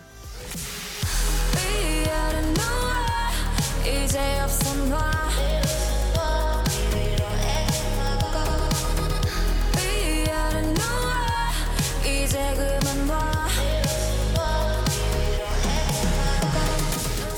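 A loud, full pop song from a Hong Kong chart plays after a brief quiet start, with a steady thumping beat, deep bass, layered synths and what sounds like a singing voice carrying the melody.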